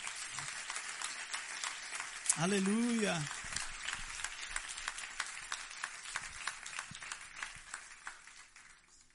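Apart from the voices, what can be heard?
audience applauding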